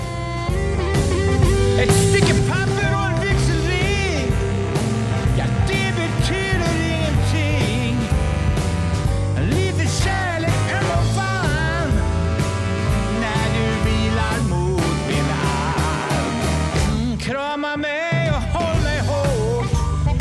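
An old rock song plays loud and steady for about twenty seconds, a full band with a driving beat and a singing voice, briefly thinning out near the end.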